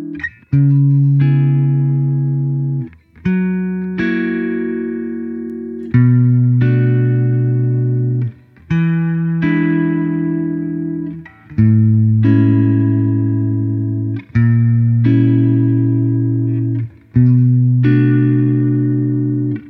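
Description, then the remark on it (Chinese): Spring reverb on a sustained, harmonically rich tone playing a steady chord sequence, about eight loud phrases of roughly two and a half seconds each, with a shimmering wash trailing each change. No talking. “还是有很大区别的，但是呢，它那种闪烁的声音呢，又被很多人喜欢，所以呢，弹簧混响后来就变成了一种独立的混响类别了。”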